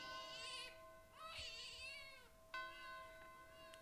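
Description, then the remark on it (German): A newborn baby cries from a stable in a few thin, wavering wails, each rising and falling in pitch, clear with no talking over it. “Wieder hörte sie aus dem Stall das Kinderwein.”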